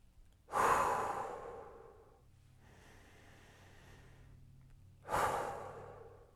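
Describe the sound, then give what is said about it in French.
Two loud, drawn-out sighing exhales bracket a quieter, steady inhale in between, clear with no talking, someone taking slow, deep relaxing breaths and letting the air out of the lungs with a sound on each exhale. “Et c'est même conseillé de produire un bruit ou un son à l'expiration”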